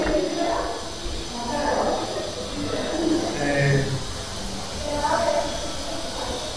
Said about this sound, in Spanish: Eh, tenemos la sierra eléctrica que se oye a polvo no, no es una sierra, es como una sierra de de concreto, no sé qué.